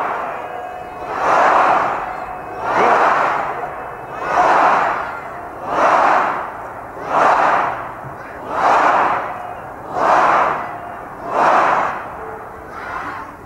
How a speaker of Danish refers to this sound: Hele pladsen bryder ud i jubel og hurraråb.